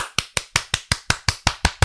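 Ten sharp hand claps in a steady, quick rhythm, evenly spaced and fairly loud, each a crisp snap that fades fast, with no talking; a sound effect made by the show's host himself.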